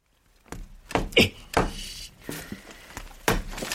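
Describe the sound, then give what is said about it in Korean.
Several dull, heavy thunks as a rubber mallet strikes an apartment ceiling overhead, about six irregular blows spaced roughly half a second apart, prominent. The blows knock a hole in the ceiling. “아니, 고무망치로 때렸는데 천장에 구멍이?”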